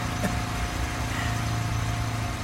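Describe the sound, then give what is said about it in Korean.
A motorcycle being ridden runs steadily throughout, a low, even rumble with a constant hum, moderately loud, with no talking over it. “오토바이 타니까 좋냐?”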